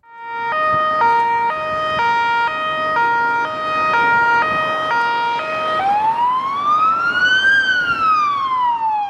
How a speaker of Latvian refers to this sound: Jā, Jā. ātrā palīdzība. Jā, tā Jā. bija ātrās palīdzības mašīna.